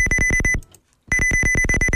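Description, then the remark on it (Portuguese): Harsh electronic video game beeps from a Philips Videopac home console game pulse rapidly in two loud bursts separated by a brief gap, a buzzy, tonal chiptune-like pattern with no voices. “Isto é o som de um jogo chamado Ai. Game Fighter.”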